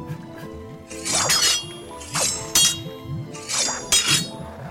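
A blade slashes and stabs at a window that will not open or break, about five sharp, ringing glassy hits landing in uneven pairs, bright and loud over a faint steady hum, with no voices.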